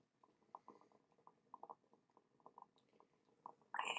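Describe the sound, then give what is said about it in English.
Quick, irregular popping bubbles gurgle through the water of a dab rig, a steady burbling patter for several seconds before a sudden louder rush at the end. “um, you guys hear the bubbles real quick?”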